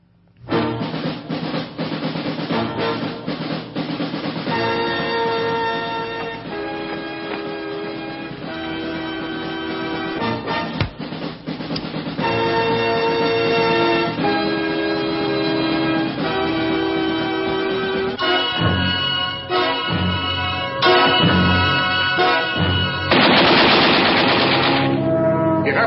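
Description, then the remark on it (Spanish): A loud, dense movie trailer soundtrack plays throughout, with dramatic music layered under rapid gunfire-like bursts and booming effects, building toward the end with no talking. “La voy a dar a play y, vamos a escuchar parte del, tráiler.”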